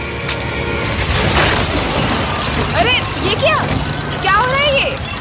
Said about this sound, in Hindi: पता नहीं यार सीढ़ियाँ टूट गई है हम फंस गए और बारिश रुकने के आसार भी नहीं दिख रहे हम ऊपर नहीं जा सकते जब तक कोई बाहर से मदद करने नहीं आता